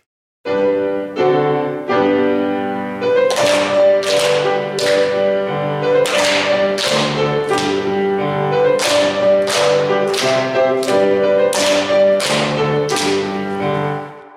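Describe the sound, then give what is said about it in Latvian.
A recording of the Latvian clapping polka circle-dance game "plaukstiņu polka" plays loudly: a lively tune with steady harmonic melody, punctuated by sharp bursts of hand claps in regular rhythmic groups throughout, with no one speaking. “Un tā tad, vai jūs šo rotaļdānci protat plaukstiņu polku?”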